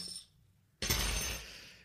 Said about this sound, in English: Sorry, I'm going to crack open a beer Ugh, with a spoon. I don't have a beer opener, bottle opener in my hotel room.